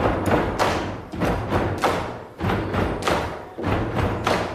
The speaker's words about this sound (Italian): Supponiamo che mille persone facciano questo rumore. Oltre al rumore dei piedi e delle mani che battono,